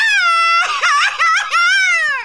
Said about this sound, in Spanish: Él no está gritando un grito mexicano, él está llorando. Ah, ¿para qué lloras?